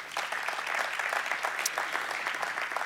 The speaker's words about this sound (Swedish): En stor applåd,